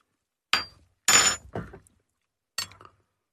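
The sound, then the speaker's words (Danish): Glasses clink together in a toast, four quick, bright taps with short ringing decays, fairly loud, with a brief pause before the last one. No one speaks. “Skål. Skål.”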